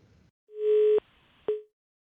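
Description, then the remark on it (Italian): A steady telephone line tone sounds after a call dropped because the caller was in an area with poor coverage: a long, level mid-pitched beep, a short gap, then a second shorter beep, clear and alone with no talking. “Luca in questo momento è in una zona che ha poca copertura, è caduto, quindi lo richiamiamo”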